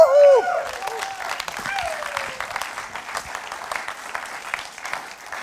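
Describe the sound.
A voice whoops briefly, then an audience breaks into steady, sustained applause, dense clapping that fills the room and carries on evenly for several seconds.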